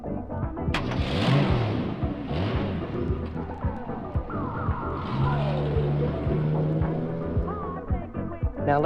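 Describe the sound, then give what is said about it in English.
A car engine rumbles and revs as the car comes back, its pitch rising and falling as it drives past, with a dense, continuous road noise throughout. “let's hear the car come back.”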